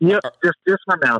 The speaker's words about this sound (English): Let me turn you up just a little bit. You sound a little muffled over there.